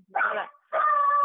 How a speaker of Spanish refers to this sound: Perdonen el perro. es, mi guardián.